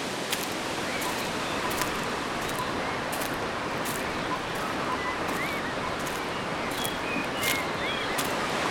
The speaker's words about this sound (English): All you can hear is the sound of the river, various falls, the rapids,